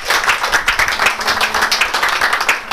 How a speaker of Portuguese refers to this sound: Graças a Deus. Pode aplaudir Deus.